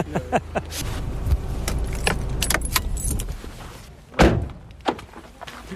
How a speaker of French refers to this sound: dans quelques instants, je vais éteindre mon moteur.